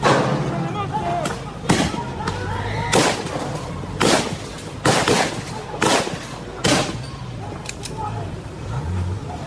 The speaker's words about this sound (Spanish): Lo que escuchamos en el trasfondo son disparos a quemarropa. Carabineros están disparando a miembros de un lof mapuche de Lumaco que únicamente con guiños de madera en la mano querían cortar una ruta.